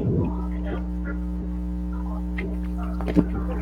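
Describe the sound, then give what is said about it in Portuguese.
A steady, low electrical hum drones continuously throughout, audio feedback from a TV or computer loudly playing a livestream that leaks into the microphone, with faint scattered clicks and a brief bump near the end. “Não dá, porque vai dar microfonia, por isso que o áudio tá ruim, tá?”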